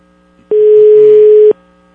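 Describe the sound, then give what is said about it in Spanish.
A telephone dial tone sounds once, a steady mid-pitched hum lasting about a second that switches on and off abruptly, loud and alone with no voices. “A ver, vamos a ver si suena.”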